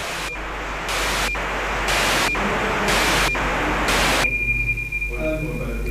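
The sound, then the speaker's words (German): Radio transmission from a weather balloon's radiosonde, which climbs to about 30 kilometres and sends weather data to the ground in real time: steady hissing static pulsing in regular bursts about once a second, with a thin high tone, then shifting into a rougher warbling signal near the end. “Und, und dieser Wetterballon, der funkt also seine Daten auf die Erde.”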